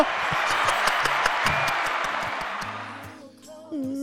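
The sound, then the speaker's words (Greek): A burst of applause sound effect: dense, rapid crowd clapping that stays loud for about three seconds, then fades out before a voice begins speaking at the end. “Ας τώρα μαλάκα το χειροκρότημα τα παίζει”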